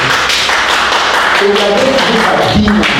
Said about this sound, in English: Hallelujah. Someone give the Lord a clap of